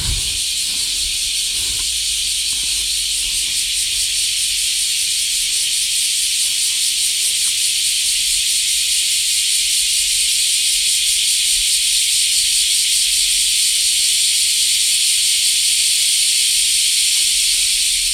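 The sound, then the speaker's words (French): A dense chorus of cicadas in Japan in summer, heard from under a large tree, buzzes loudly and continuously, a steady high-pitched drone filling the whole stretch with no pauses and no voices. “Mais au Japon, où vous soyez, l'été, voilà, c'est ça, partout. Les cigales.”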